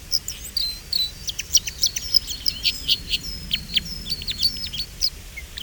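A crossbill sings a fast series of sharp, high chirps and short trills, each note clipped and bright, repeating steadily over a faint low background hum with no voices.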